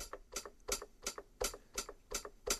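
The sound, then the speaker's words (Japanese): A hi-hat cymbal ticks out a steady eighth-note (8-beat) pattern on its own, about eight crisp, evenly spaced hits, bright with short decays. “ちょっとハイハットだけ切り取って聞いてみますと、もし8ビートベタでハイハット刻むと”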